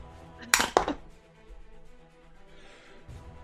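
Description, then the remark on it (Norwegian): Dice are rolled for a Wisdom saving throw in a tabletop role-playing game, clattering in two quick bursts of sharp clicking, then settling into a quieter tail of faint rattling against a soft background hum. “Ok, Vi prøver siste terningene. Jeg har ikke så mange terninger igjen her.”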